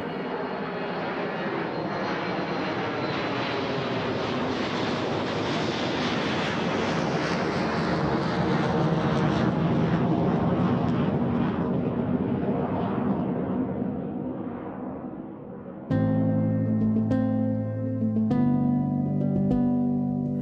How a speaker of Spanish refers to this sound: El umbral de dolor se establece en los 130 decibelios y por encima de ese nivel encontramos el ruido del despegue de un avión.